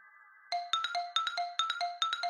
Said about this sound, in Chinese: 闹钟的声音响了。